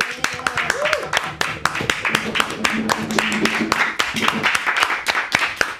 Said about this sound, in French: Allez, des applaudissements.